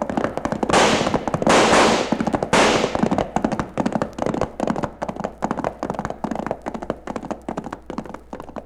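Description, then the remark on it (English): Gunshots from a gunfight as a gang pumps lead into the Charlton house and is shot at in return: a loud, rapid barrage of sharp cracks, densest with roaring bursts early on, then a steady stream of overlapping pops continuing to the end, with no talking. “Let's see if they can take it as well as throw it. Nice shooting”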